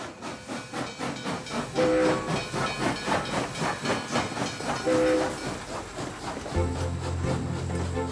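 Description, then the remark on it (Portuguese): A steam train on a journey to Porto chugs in a steady rhythmic pulse with hissing steam, brief whistle tones sounding around two and five seconds, then a deeper rumble and hiss near the end. No one speaks. “A aventura começou logo no comboio.”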